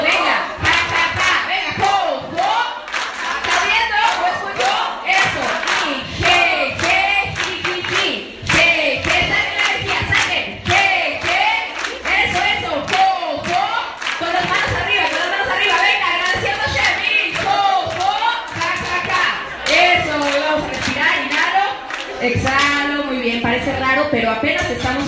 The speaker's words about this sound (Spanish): Y vamos a empezar a aplaudir solo para despertar la alegría y vamos a, a continuar.